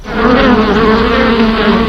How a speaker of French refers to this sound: Des abeilles